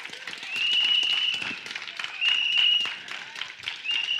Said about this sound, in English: Everybody clapping but married people.